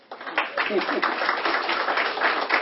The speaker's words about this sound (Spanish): Gracias. Ella es, un aplauso.